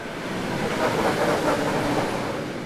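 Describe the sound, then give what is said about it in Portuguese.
A train rolls steadily along the rails, a continuous broad rumble with a faint rhythmic clatter from the wheels, loud throughout, with no voices. “E, para minha total surpresa, havia uma estação de trem praticamente dentro do cemitério.”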